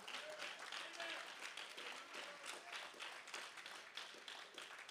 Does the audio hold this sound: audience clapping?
yes